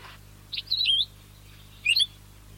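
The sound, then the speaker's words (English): A tape recording of an endemic Hawaiian forest bird: two short bursts of high, whistled calls, each a quick cluster of rising and falling chirps separated by a brief pause, clear against a faint low hum. “And my team and I had been listening and training ourselves via tape recordings of various birds of that region to identify the calls of all of the endemic forest birds known from that place.”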